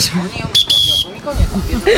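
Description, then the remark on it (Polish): A single loud, steady, shrill whistle blast lasting about half a second, from a strong whistle blown once into a microphone at a lake 14 km from Leszno, in clear, cloudless weather, with brief bits of voices before and after it. “Zagwizdać na gwizdku, tak, raz, raz, do mikrofonu mikrofonu.”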